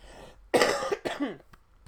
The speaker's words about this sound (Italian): wow, tosse, tosse.